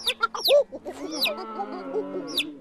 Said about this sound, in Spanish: Un pollito.